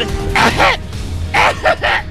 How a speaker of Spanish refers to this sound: Molt bé, tos com una molt refredat, Molt bé, molt bé.